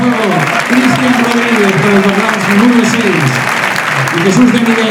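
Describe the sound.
A stadium crowd at Castalia, home of Club Deportivo Castellón, applauding on their feet as Cristian Rodríguez leaves the pitch in a substitution: a dense steady roar of clapping at a loud, even level throughout, with a murmur of voices and scattered shouts mixed in.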